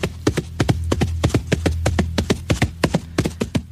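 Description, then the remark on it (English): Horse hooves trot along a main road toward Goldcrest Manor, a quick, even run of sharp clip-clop strikes with a low rumble beneath, continuing without pause and no voices. “They walk down the long lane away from Carnifex's house, then turn onto the main road and break into a trot as they head toward Goldcrest Manor.”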